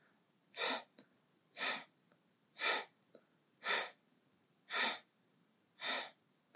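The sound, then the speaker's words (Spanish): Heavy, agitated breathing, with six forceful breaths in a steady rhythm about one second apart, each a loud rushing puff separated by brief pauses, and no talking; a person deliberately intensifying their breathing while tensing the hands, arms and chest. “Y empieza a animar tu respiración. Si ya se ha agitado un poco, puedes animarla y potenciarla un poco más.”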